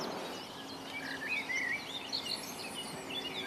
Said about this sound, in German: Und der ist sehr einfach zu erkennen, weil der wieder Kuckuck seinen Namen ruft. Zilpzalp, Zilpzalp, Zilpzalp.